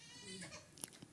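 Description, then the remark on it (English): A faint baby's cry in a house, a brief wavering wail with a couple of short sharp bursts near the end, heard alone without talking. “because babies are crying.”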